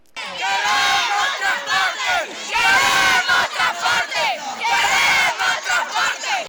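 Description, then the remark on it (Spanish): A crowd of students and school community members protesting at their school shouts together in loud, sustained bursts, rising and falling in rhythmic surges like a protest chant, demanding school transport, proper student meals, cleaners and drinking water, with no single speaker standing out. “Gracias a este clamor realizado por la comunidad educativa”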